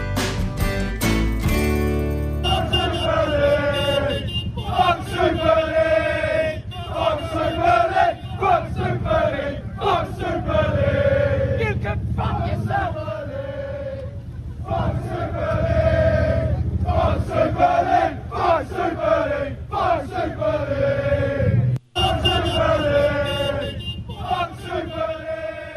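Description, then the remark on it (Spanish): A large crowd of Chelsea football fans chanting loudly in unison, a rhythmic, repeated protest chant of "fuck Super League" with voices rising and falling together, continuing almost without pause for the whole stretch. “Los que, los que gritan fuck Super League son los hinchas del Chelsea.”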